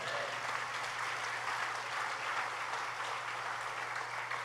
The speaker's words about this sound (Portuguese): Era um bom momento de você dar um amém um aplauso a Jesus.